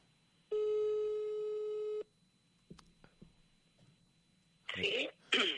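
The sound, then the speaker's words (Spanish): A single steady telephone ringback tone sounds for about a second and a half while a phone call is being placed, followed by near silence with a few faint clicks, then two short bursts of harsh, hissy noise near the end. “Vamos a ver mm, un tono, a ver cuándo da, me encanta lo de... Cuatro tonos y si no pierde el millón, el euromillón.”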